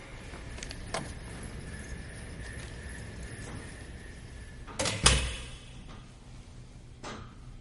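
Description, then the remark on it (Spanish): A laboratory door is opened with a sharp latch clack and a heavy thump, after a small click earlier, over a steady low hum with no one talking. “Abre la puerta del laboratorio.”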